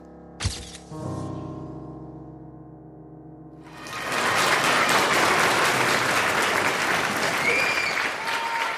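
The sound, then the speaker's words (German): A sharp hit and a sustained musical chord ring out, then a theater audience bursts into loud, dense, enthusiastic applause as Günter Kaufmann bows on stage with other performers, the applause continuing steadily to the end. “Er verbeugt sich. Das Publikum ist begeistert.”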